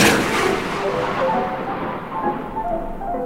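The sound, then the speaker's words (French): A heavy night thunderstorm with wind and rain rolls on, shutters banging against the window, with a loud burst of thunder at the start fading into a steady, rumbling wash of wind and rain, with no voices. “Alexandra Davinel naît en 1868, près de Paris, une nuit d'orage et de tempête. Les volets claquent contre la fenêtre.”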